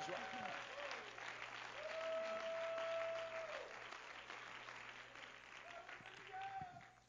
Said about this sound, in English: Hallelujah. Come on, clap your hands to him and give him praise.